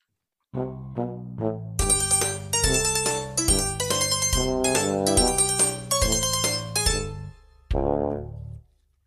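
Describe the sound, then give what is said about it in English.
A short, bouncy instrumental jingle in the style of a comedic sitcom theme, made to sound the same as the theme of Larry David's show for a segment called "Serb Your Enthusiasm"; a jaunty melody of plucky, bright notes played loud for several seconds before ending with a final chord. “We made uh, we made a thing that kind of looked like Larry David, but it's Steve, and then we made the the theme song sound the same.”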